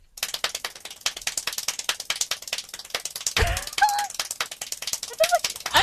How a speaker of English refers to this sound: So this is what it sounds like. This 1140 claps a minute.